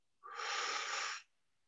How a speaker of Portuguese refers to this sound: Ele entra pelo nariz, trava o ar, preenche o pulmão, abraça o coração. Solta emoção negativa pela boca.